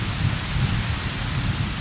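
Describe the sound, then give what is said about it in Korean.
Heavy rain pours down in a steady, dense hiss during a lightning storm, with a low rumbling undertone like thunder. The downpour is loud and continuous, and no voices are heard. “다시 굵어진 빗방울들이 희주의 어깨에 부딪혀 잘게 부서졌다.”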